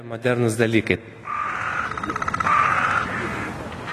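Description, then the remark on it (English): A dense chorus of small songbirds, a lesser whitethroat at some distance, two types of sparrows, a blue tit and some starlings, chattering and singing with rapid repeated trills and twittering from several birds at once, following a brief voice-like call at the start, in a park in the centre of Vilnius, Lithuania. “Here, there is a lesser whitethroat at some distance. Over there are two types of sparrows, a blue tit, some starlings.”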